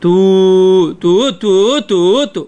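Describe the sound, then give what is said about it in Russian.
A voice imitates shofar blasts: one long sustained tone followed by three shorter, bending blasts and a brief clipped fourth, loud with no other sounds. “простое трубление, то, что мы называем ткия, ту”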